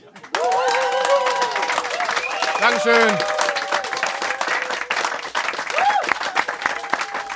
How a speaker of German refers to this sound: Dürft ihr nochmal klatschen, wenn ihr wollt.